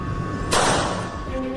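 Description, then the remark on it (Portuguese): A single sharp gunshot cracks out and fades over about half a second, standing out clearly against a steady low background hum with no talking. “E no momento em que Dani acordou o jornalista sonolento, ouviu um disparo.”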